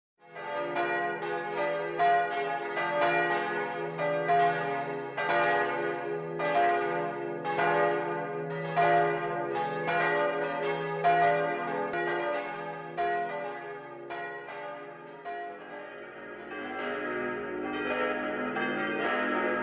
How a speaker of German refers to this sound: Und da haben wir jetzt das Kleid auf, das mächtige Geläut vom Kloster Tegernsee.